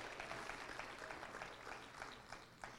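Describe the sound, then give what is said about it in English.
An audience claps their hands together to thank God for Acts 2:38, a dense, steady wash of many overlapping claps that keeps an even loudness for a few seconds without any voices. “Let's clap our hands and thank God for Acts 2.38.”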